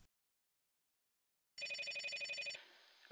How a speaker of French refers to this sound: un jour, à 25 ans, Déborah reçoit un coup de téléphone